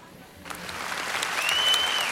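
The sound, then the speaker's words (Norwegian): An audience at a concert breaks into applause welcoming a violinist onto the stage, a dense crackle of many hands clapping that swells steadily louder over a couple of seconds, with a faint high whistle rising near the end. “Nå klappes du inn.”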